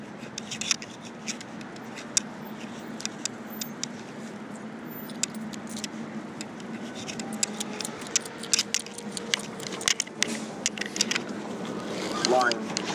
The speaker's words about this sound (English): Ooh, here comes here comes the bus, little darling. Here comes the bus